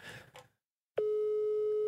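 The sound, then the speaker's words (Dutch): A telephone ringing tone as a call is placed live on Shotcast starts after a brief pause and holds steady: a loud, unbroken single-pitched hum with a bright buzzy edge, preceded by a couple of short soft rustles. “En ik stel voor dat ik de man ook eens even bel.”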